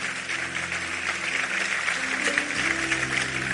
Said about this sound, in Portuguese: Aplauda ele aí, meu nome de Jesus.